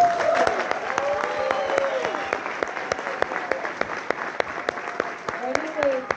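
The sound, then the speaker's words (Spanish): Sustained audience applause welcoming a speaker at an organization's event, a dense wash of clapping with sharp individual claps standing out, steady for about six seconds with some whoops or voices mixed into the crowd. “Entonces yo quiero que ustedes me ayuden a recibir con el mejor de los aplausos”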